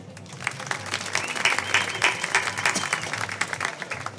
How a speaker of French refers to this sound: Le 4, on peut l'applaudir